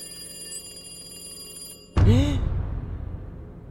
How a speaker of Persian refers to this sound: زنگ تلفن سکوت فضا رو پاره کرد جواب بدم یا نه می ترسیدم تصمیم گرفتم اگه هزار بارم زنگ بخوره جواب ندم ولی واقعا انگار داره هزار بار زنگ میخوره هر بارم که صدای زنگش بلند میشد مو به تنم سیخ میشد فکر کنم بعد از هفتاد هشتاد بار بالاخره قطع شد